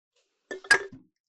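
Drinks clink together in a toast: three or four quick glassy knocks bunched within about half a second, then quiet. No one speaks.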